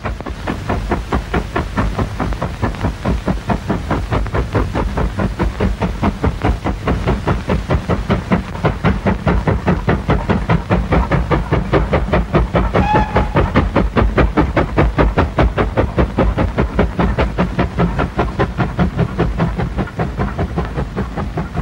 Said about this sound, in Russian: Судя по всему, причина в том, что источник звука один, один единственный паровоз, а сама запись происходит на улице